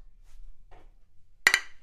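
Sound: glasses clinking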